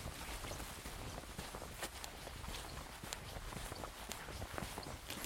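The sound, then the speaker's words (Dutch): Steady footsteps crunch along an outdoor path at an even walking pace, fairly quiet, over a constant hiss of background noise: a person walking the final 26-kilometre stage from Schluho to Neuhof on a rainy day. “Wij besluiten dat ik de laatste etappe van Schluho naar Neuhof ga lopen.”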